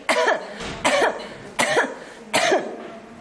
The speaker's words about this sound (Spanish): Tú puedes soltar el aire cuando metes la barriga. Por tanto, puedes toser cuando metes la barriga.